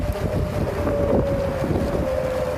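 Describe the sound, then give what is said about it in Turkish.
Strong storm wind during a tornado in Tennessee, United States, roars steadily and loudly, buffeting the microphone, with a sustained whistling tone running through the rumbling gusts for the whole stretch. “Amerika Birleşik Devletleri'nin Tennessee eyaletini şiddetli fırtına ve hortum vurdu. Kuvvetli rüzgarla birlikte ağaçlar devrildi.”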